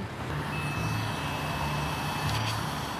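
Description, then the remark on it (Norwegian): A breathalyzer gives a single steady, high-pitched electronic beep lasting about two seconds, then stops, over a constant low idling-engine rumble. It sounds during a routine police roadside alcohol check as a driver blows into it until the beeping stops. “Da skal du bare få blåse her, og så blåser du til du slutter å pipe.”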